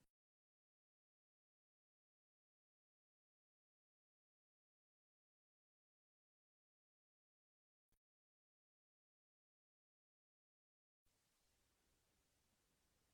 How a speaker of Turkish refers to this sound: Sizin sesiniz bir gitti ama. Ben şimdi duyuyorum sizi.